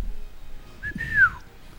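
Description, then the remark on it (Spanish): A single soft whistled note from a person as a quiet complaint, imitating how a Chilean reacts when someone cuts ahead in a line; it slides upward then falls in pitch over about a second, quiet, with no one talking. “empieza a poquito, pero ojalá me escuche yo nomás el, silbido. el reclamo. Pero no, no voy a reclamar.”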